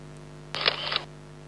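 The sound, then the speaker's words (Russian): A simulated camera shutter click made by pressing a single button, with no real camera involved: a single crisp bright burst lasting about half a second, clear against a quiet background hum, with no voices. “Ну, звук символический, реального фотоаппарата там нет.”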